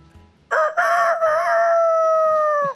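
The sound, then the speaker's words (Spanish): A person imitates a rooster's crow: one loud, drawn-out cock-a-doodle-doo, rising sharply and then holding a long, steady tone for about two seconds. “Mejor bueno. gallo.”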